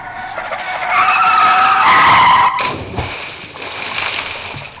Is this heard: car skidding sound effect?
yes